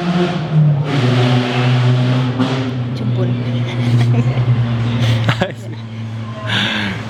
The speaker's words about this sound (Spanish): Perdón por la moto que pasó, gracias.